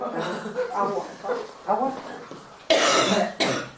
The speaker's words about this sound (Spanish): Chica, tose que vas a reventar. Dale un largo cuidado. Ahí, un caramelito, un coñac.